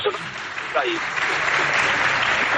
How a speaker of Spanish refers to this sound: Aplausos, aplausos, hombre.